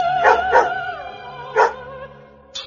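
Dogs bark in a short burst: two quick barks, a pause, then another bark and a final clipped yelp, moderately loud with no one talking.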